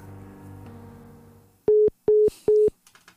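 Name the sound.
dropped phone call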